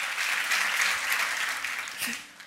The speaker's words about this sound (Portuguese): Graças a Deus, aplauda o Senhor.